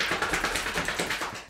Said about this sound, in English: That was my dog shaking.